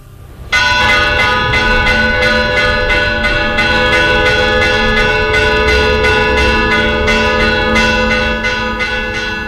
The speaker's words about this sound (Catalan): Més o manco així sonaven les campanes del convent de Santa Magdalena amb aquest toc d'alarma.